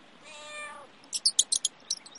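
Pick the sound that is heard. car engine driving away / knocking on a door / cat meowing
cat meowing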